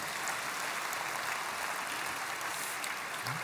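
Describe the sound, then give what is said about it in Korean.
An audience applauds steadily to give glory to God after a worship song, a dense, even wash of many hands clapping that stays at a constant loudness for the whole stretch, with no voices over it. “네, 아, 귀한 찬양 아, 하나님 앞에 올려드렸는데 우리 하나님께 감사 영광의 박수 올려드리겠습니다.”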